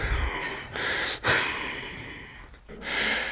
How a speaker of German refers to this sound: Also ich habe den Schlag ausgeführt mit Kraft und Schnelligkeit und komme ins Schnaufen.